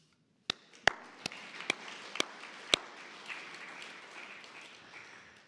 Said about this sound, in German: Darum, ihr Männer, liebe Brüder, eigentlich habt ihr auch einmal einen Applaus verdient.